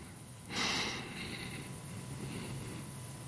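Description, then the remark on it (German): A deep breath drawn in through the nose, starting with a sharp, airy rush that softens into a long, quieter intake, with no talking over it. “Und du weißt ganz genau, das Einzige, was ihr braucht, ist, wir atmen ein”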